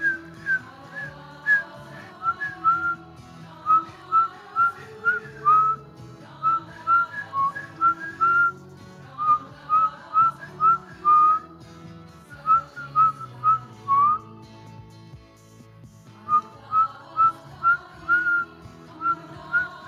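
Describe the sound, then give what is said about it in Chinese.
Someone whistles during a meditation exercise, using the whistle to resonate and feel their own sound, in a steady, melodic stream of short repeated notes, grouped into phrases with brief pauses between them, over a low sustained hum in the background. “用吹口哨的方式去共振，然后去感觉你自己发出的声音。”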